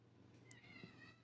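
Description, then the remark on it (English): A faint, brief meow from Kylo, one of the speaker's two cats, rises and trails off, preceded by a small sharp click, with no one talking. “oh, also just so you guys know, I have two cats and they like to talk. so you might hear them.”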